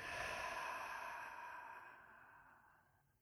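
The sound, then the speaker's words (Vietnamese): A long, deep exhale through an open mouth during a guided breathing exercise, following a deep breath in, breathy and airy, strong at first and slowly fading away over about three seconds, with no talking. “Mở miệng và thở ra.”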